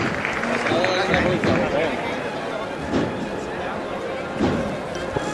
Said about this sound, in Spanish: Suena el llamador y se arría el paso en plena calle Pureza.